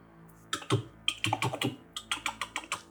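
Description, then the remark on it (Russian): Rapid computer keyboard typing, a quick burst of clicks followed by a steadier run of distinct keystrokes, clear with no one speaking. “Печатаю.”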